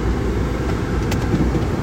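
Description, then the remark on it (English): A car engine rumbles steadily, a low continuous drone with a brief faint click partway through, as the driver slowly maneuvers into a parking spot beside other parked cars. “Let's pray I don't hit this lemon car. I feel like I'm gonna hit these people car.”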